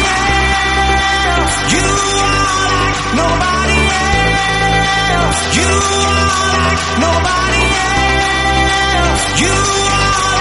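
A loud, full-band music track with a sung vocal line gliding over steady, pulsing bass chords, playing continuously throughout.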